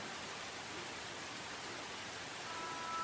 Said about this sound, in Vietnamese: Ngoài cửa sổ mây buổi chiều đã đen từ chân đỉnh đồi Cơn mưa đã xuống đó, thật to